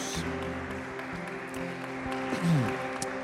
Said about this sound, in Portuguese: Amém, queridos. Vamos aplaudir Jesus. Glória a Deus.